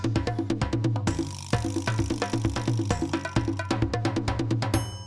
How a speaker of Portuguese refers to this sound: Então roda a vinheta, tá começando agora o Pizza com Marketing